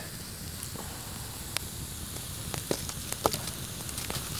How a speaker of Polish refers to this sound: Ja dorzucę trochę drewna, bo znowu nam ogień tu przygasa. Musimy troszkę o ten ogień zadbać. Trochę tego jest wilgotnego. Ale damy radę.